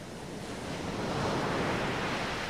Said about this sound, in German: Das, mein lieber Lukas, ist das Meer.